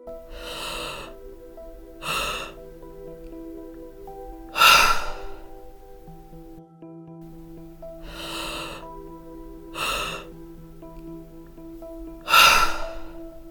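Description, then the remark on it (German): Two rounds of slow, deep breathing: audible inhales deep into the lower belly, a brief breath hold at the peak, then a louder, relaxed, effortless exhale through the open mouth, over a soft, sustained musical drone. “Am Höhepunkt deines Einatmens hältst du die Luft kurz an Erst danach lässt du sie wieder aus deinem geöffneten Mund herausfallen, ganz ohne Anstrengung.”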